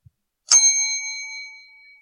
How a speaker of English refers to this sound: That means it's scorching today. Um, I'm gonna ring that bell every time it's uh, hotter than it should be.